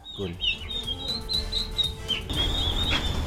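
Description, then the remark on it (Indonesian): Newly hatched turkey chicks, small and weighing about 45 grams, peep continuously in high, thin chirps that overlap one another, fairly loud, with low rumbling handling noise underneath and no one speaking. “Dan seperti ini nih bentuk anak kalkun yang baru menetas.”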